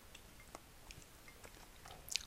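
Quiet chewing while eating a homemade lunch, with soft, irregular crunchy bites spread across a couple of seconds, ending in a slightly sharper crunch; no one speaks.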